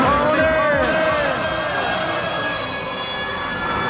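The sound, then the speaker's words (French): Dense, loud, steady fairground din with rumbling machinery and sweeping, whining tones that rise and fall continuously, with a hint of voices blended into the mix. “Et aujourd'hui, on va écouter l'ambiance de la fête foraine.”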